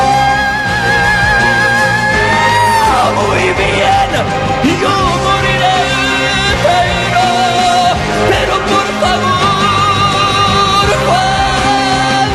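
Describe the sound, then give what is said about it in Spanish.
A singer belts out long, piercing high notes over a full, loud band, the sustained wails soaring and bending above dense instrumental backing throughout. “cada grito, cada grito de estos hacía corriente a toda la sala.”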